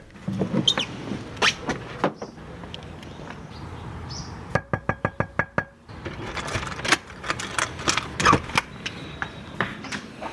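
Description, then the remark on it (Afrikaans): A quick run of about eight sharp knocks on an apartment door in District Six, fairly loud, set amid scattered clattering and shuffling noises before and after. “Kom ons gaan klop aan by Jasmin”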